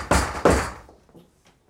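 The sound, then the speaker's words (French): A door being opened, heard as two loud thuds in quick succession followed by a fading tail of faint rattles and creaks. “Je vais voir à la porte.”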